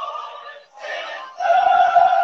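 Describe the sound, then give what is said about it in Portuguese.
The Internationale, a socialist anthem, plays as opening music, with sustained harmonic notes that swell and shift in short phrases, a brief dip partway through, then a fuller, louder passage. No one talks over it. “O que vocês estão escutando é a internacional.”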